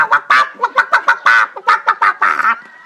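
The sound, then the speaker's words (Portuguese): A person imitates the clucking of a magic hen named Cococo with a quick series of about a dozen choppy, nasal bursts, loud, ending in a longer drawn-out cluck. “O João, além de cuidar desses bichos, cuidava também da sua coleção de galinhas mágicas. Ele tinha três. A primeira era Cococo. Cocó.”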